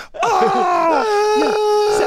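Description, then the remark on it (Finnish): A voice imitates the excited high-pitched shrieking of women greeting each other after a long time apart, a sustained wavering squeal lasting about two seconds, loud, with a second voice's lower vocalizations bubbling underneath. “on semmoista vaan huutoa.”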